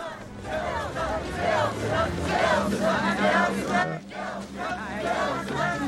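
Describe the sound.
A dense crowd at a political rally murmurs and chatters continuously, many overlapping voices forming a steady, fairly loud hubbub with occasional swells, heard from within the gathering.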